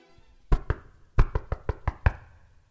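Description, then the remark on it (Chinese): In the Ali Baba story, the robber chief disguised as an oil merchant knocks firmly on the door of Ali Baba's house: two quick raps followed by a short pause and then six more in a steady rhythm. The hollow thuds stand out clearly with no voices. “首领化身成卖油商人，来到城里，走到阿里巴巴的家门口，敲敲门。”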